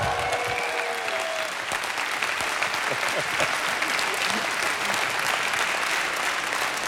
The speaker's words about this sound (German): Also ich, ich glaube, nach dem Applaus müssen wir diese Veranstaltung häufiger machen.